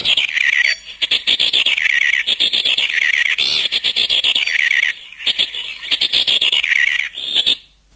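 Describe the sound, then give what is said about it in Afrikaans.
Four or five male birds, gathered in a circle in summer, squawk harshly at one another in a loud, overlapping, almost nonstop chorus of raspy, high-pitched calls, with brief lulls before the racket fades out at the end. “Dan sit daar vier of vyf in 'n kring en hulle skree vir ure vir mekaar so.”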